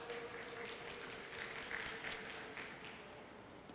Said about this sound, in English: That was terribly polite clapping.